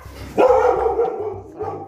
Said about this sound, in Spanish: Y bueno, estaban ladrando mis, pequeñas traviesas.